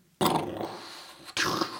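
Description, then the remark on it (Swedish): Fireworks go off outdoors twice, each a sudden loud bang followed by a rumbling, crackling tail that fades, with a short lull between the two blasts and no talking. “Det är fyrverkerier här.”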